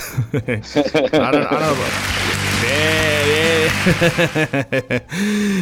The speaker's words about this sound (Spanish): Ahí, ahí, nuestros aplausos.